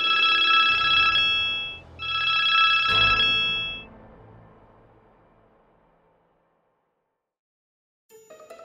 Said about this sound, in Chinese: 咦，是谁打电话来？ 平常家里电话很少会响，溜溜赶紧走到客厅去接。